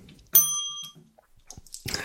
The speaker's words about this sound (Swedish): Jag kände att den förtjänade klockan.